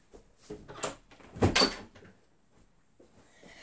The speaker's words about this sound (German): Ich habe alle angespart und ja, ich mache eben die Tür zu.